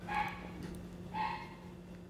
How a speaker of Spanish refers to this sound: Hay un perro ladrando. Puedes cooperar, puedes este, hacer música cooperativa con el perrito. Sí, dos perros ahora ya están colaborando.